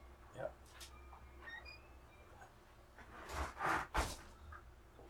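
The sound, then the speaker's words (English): A door swings shut, with a brief rustling sweep and then a solid low thump, over quiet room hum; faint, high chiming tones of a wind chime ring briefly earlier. “Would it be okay if I close the door because the wind chime is”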